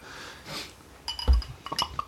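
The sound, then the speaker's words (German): Drinking glasses held out by several people clink together a few times, sharp bright taps with short high ringing tones, following a soft breathy rustle at the start. No one speaks. “So her mit euren Gläsern. Gläser raus.”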